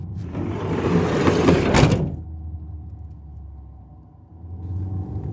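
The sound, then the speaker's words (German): A car door shuts after a burst of rustling noise, then an engine settles into a low, steady rumble that swells again as the car starts to pull away. No one speaks. “Super, dann setz dich rein und ich zieh los.”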